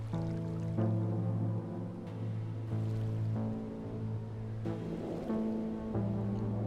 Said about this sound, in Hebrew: צלילי זרימת הנהר מתחזקים, הלחות מורגשת באוויר.